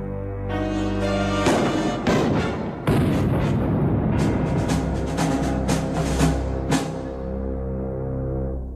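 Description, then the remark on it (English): A rapid series of loud gunshots cracks out in uneven bursts over a steady low rumbling drone, with the blasts overlapping into a dense barrage of gunfire. “Yeah, yeah, and a pacifier suck um replicating that of like shooting the gun. Gunshot, yeah.”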